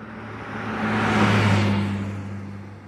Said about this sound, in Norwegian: For når du står der i veien og hører bilen komme mot deg for så å kjøre forbi, hører du en tydelig endring i tonehøyden. Det er fordi frekvensen i lydbølgene bestemmer hvor høy eller lav en tone er.